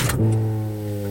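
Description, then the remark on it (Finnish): A Passat car gives off an odd noise every time the engine is switched off: a brief scuffing burst, then a steady, low electrical hum with a buzzing, tonal quality that continues evenly. “Aina kun hän sammuttaa auton, niin, kerran, niin, niin tota, ihan... kuuluu tämmöinen ääni.”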